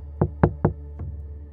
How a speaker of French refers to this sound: Elle est arrivée à ma hauteur, a posé son sac et a commencé à cogner à ma fenêtre.